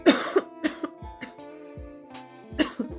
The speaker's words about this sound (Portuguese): Até tossi de tanto falar